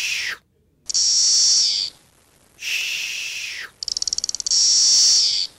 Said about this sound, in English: This is number one. Magicicada cassinii, makes the white noise sound.